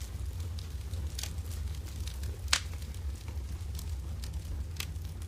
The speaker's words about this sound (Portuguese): Que mostra que se você escuta a madeirinha piriricando ali no seu ouvido, mano, aquilo me dá uma delicinha, me traz uma paz.